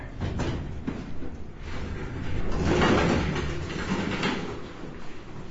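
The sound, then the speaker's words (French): Elevator doors slide open at the first floor with a steady mechanical rumble that swells in the middle and then settles, with no talking. “Ouverture des portes. Premier étage.”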